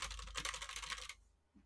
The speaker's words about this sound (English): They're just pressing buttons. Wow. It's like any TV show. They just tap the keys.